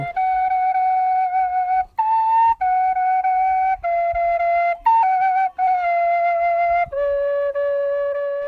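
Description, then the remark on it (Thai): A young fisherman out at sea plays a flute he always carries: a slow melody of long, held notes with short breaths between phrases, fairly loud, with no voices or other sounds alongside it. “ชาวประมงหนุ่มน้อยคนหนึ่งออกไปหาปลาที่ทะเล เมื่อไปถึง เขาก็จะหยิบขลุ่ยที่พกติดตัวอยู่เสมอขึ้นมาเป่า”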